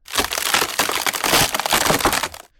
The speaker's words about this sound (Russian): Но вдруг под весом снежного шара вместе с монстр-траком лед начал трескаться.